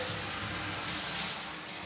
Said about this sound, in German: So, dann wollen wir mal duschen. Ja, fangen wir mal an. Das Wasser, ihr hört, das Wasser läuft.